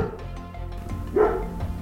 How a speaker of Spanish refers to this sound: No, y justo ahora me acabo de escuchar el ladrido, espero que se escuche la grabación. Y ese es el perro Duque.